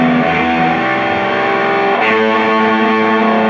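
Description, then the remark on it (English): A loud, dense wash of electric guitar played through a fuzz pedal, with fuzzy, saturated sustained chords and thick harmonics, shifting to a new chord partway through, with no voices. “Yeah, I was gonna say maybe a little bit more of the fuzz.”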